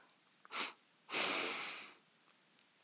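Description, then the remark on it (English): A quick, sharp sniff through the nose is followed right away by a longer, steady nasal inhale, both breathy with no talking: a double-breath inhalation done as a breathing exercise. “And the way that we do a double breath is to have a short, sharp inhalation through the nose, followed immediately by a long inhalation through the nose.”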